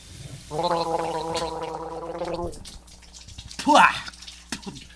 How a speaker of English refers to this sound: Oh, excuse me. I was just uh, hopping out of a cold prison shower and uh, washing my spicy mouth out with milk.